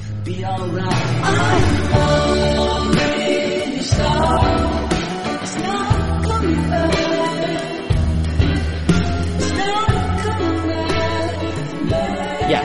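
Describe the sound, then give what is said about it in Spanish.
A full rock song plays loudly and continuously, with heavy bass, driving drums and layered guitars and vocals filling the whole stretch. “ya, el segundo tema y suena así.”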